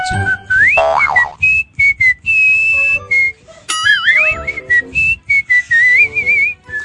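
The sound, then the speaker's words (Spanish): A person whistles a lively traditional melody, with bright sustained notes, quick trills and warbling slides, phrased in short bursts with brief pauses between them. “soy uno de los mejores silbadores de mi generación”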